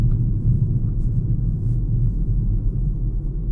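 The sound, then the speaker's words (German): A steady, blustery rumble of wind buffeting the microphone on a windy day with blue sky and bright sunshine, deep and continuous with slight gusty swells, fairly loud, with no voices. “Es ist ein bisschen windig, okay, aber.”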